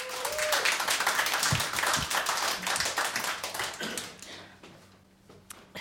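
An audience applauds, a dense and steady patter of many hands clapping together for several seconds before thinning out and fading near the end.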